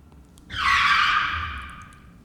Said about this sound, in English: The next part, I just imagine the sound effect of like screeching brakes